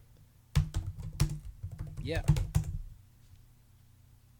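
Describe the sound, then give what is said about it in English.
Fast clicking of keys on a computer keyboard, a rapid burst of sharp taps lasting a couple of seconds, with a person briefly speaking over it, as someone types to look up a band's name. “Are you ready for some ASMR typing?”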